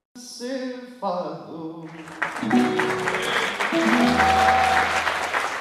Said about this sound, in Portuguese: Aplausos nas bodas de ouro do fadista